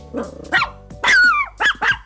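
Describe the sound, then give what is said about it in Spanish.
A small dog barks sharply several times in quick, uneven bursts, loud, with a yelping, slightly whiny tone and no voices. “Ándale, eso, justo eso, el perrito detector de controversias.”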